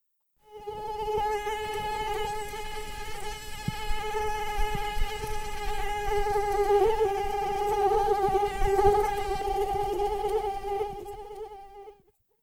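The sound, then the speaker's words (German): A high, thin mosquito whine drones steadily for about eleven seconds, fairly loud, with slight wavers in pitch as it hovers. No one speaks. “Nachts äh, hört sich an nach einer Mücke, oder?”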